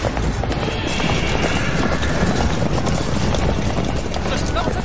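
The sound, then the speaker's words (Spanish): Many horses gallop in a steady, loud rush of pounding hooves that fills the whole stretch, a dense drumming clatter with a rumbling, crowded edge: a cavalry of about 200 riders charging in battle, riding west parallel to the enemy's front line. “¡Cabalgad en paralelo a su primera línea! ¡A distancia para evitar sus flechas!”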